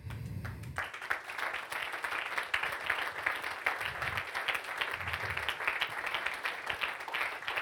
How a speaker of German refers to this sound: Und ich möchte jetzt, dass du dir selber einen Applaus gibst, weil in deinem Leben schon was passiert ist.